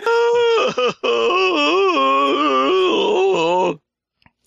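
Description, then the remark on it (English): A loud, drawn-out groaning moan from a single voice, wavering up and down in pitch for a few seconds with a brief catch near the start, then cutting off into silence. “Open the sound season, of, uh, that is the sound of, uh, Biden's staff getting anal swabbed there.”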